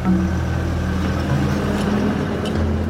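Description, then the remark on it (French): A large 4x4 vehicle's engine rumbles steadily, a deep continuous drone with low tonal hum as it pulls away in Guadeloupe, its driver setting off to look over his farm; no voices present. “part avec son gros 4x4 supervisé, regarder son exploitation”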